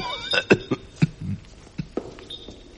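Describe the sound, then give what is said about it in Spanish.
A fit of coughing, several sharp coughs in quick irregular succession, with a couple more trailing after a short pause, no talking. “El ataque de tos le impidió responderme al momento.”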